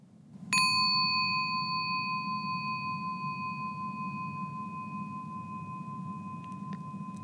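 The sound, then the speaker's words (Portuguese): A single meditation bell is struck once and rings out with clear, steady harmonic tones that sustain and slowly fade over several seconds, heard alone over a low background hum. “O sino não é capaz de criar paz nenhuma. Ele só lembra você de olhar e de encontrar uma paz que já está em você.”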